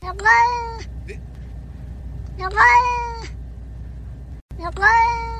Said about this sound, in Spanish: Y oigan, el gatito, ¿cómo, cómo? Ah, hablaba? Dicen que esto en, en japonés son como palabras, pues, pero no, no, dice bien qué es.